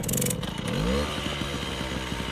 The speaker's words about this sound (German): Mopeds. Überall sind Mopeds. In Ho Chi Minh Stadt, der größten Stadt Vietnams, sind selbst fünfspurige Straßen damit verstopft. In ganz Vietnam gilt, es gibt schätzungsweise fünfmal so viele Mopeds wie Autos.